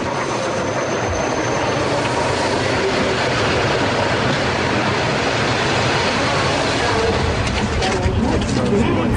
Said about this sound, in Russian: Платформа железнодорожной станции. Стоят люди, подходит электричка.